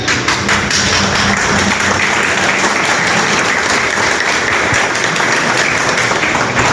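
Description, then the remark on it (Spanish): Loud, sustained applause from a large crowd at a Colombian campaign event for senator Ciro Alejandro Ramírez on a rainy afternoon, a dense wash of many hands clapping at once that holds steady for several seconds without any voices standing out. “Vamos a multiplicar todos esos aplausos, convirtiéndonos en agentes multiplicadores del conocimiento que tenemos del senador Ciro Alejandro Ramírez.”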